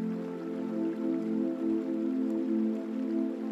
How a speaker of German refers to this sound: Du kannst schon das Rauschen des Wassers wahrnehmen. Rand des Flusses angekommen, schaust du auf das fließende Wasser. Das Wasser fließt gleichmäßig durch den Fluss.